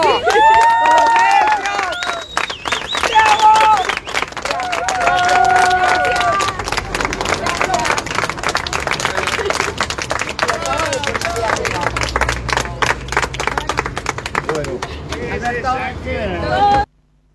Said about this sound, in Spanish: Por eso está llorando. Un aplauso.